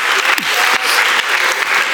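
An audience claps steadily, a dense wash of many hands with no pauses, fairly loud throughout. A brief voice-like sweep and scattered shouts rise faintly beneath the applause.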